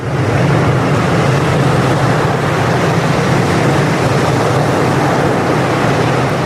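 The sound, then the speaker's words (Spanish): A steady, loud rush of sea surf washing onto a wild beach with palm trees, a continuous wide roar with no distinct breaks between waves and no voices. “Lo ideal en realidad es estirarse, escuchar el sonido del mar.”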